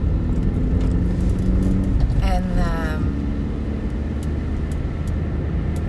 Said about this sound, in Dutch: even afgeleid door het verkeer.